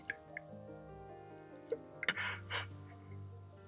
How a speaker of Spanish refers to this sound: Relajado, por ejemplo relajado y con sueño, y bostezando. Espero ya haberte contagiado alguno de los bostezos, pero ya he bostezado dos veces. Estos últimos días estoy bostezando bastante más que, que lo que hago habitualmente.